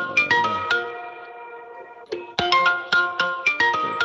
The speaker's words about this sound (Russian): Это где звонит что-то? Это у вас звонит телефон.